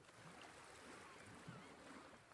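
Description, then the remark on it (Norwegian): Quiet outdoor waterside ambience at a marina, with a steady wash of lapping water and faint boat-like creaks and knocks, no voices, ending on a sudden brief clunk. “Jeg er tilbake på marinaen til Bengt Knop, for det var i hans båt Lene blei funnet.”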